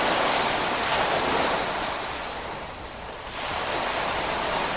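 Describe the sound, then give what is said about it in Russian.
An attempt to reproduce the sound of ocean waves, performed live on air: a steady, loud rush of surf-like noise, like waves and sea breeze, dipping briefly near the end before swelling back up. No voices are heard. “Ну, это сойдет за морской бриз.”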